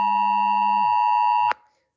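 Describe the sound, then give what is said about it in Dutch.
A loud, steady NL-Alert emergency alert tone from a phone, layered like a chord, with a lower note sliding down before the whole tone cuts off abruptly with a click. No one speaks. “Sorry, ik werd even onderbroken door een NL-alert.”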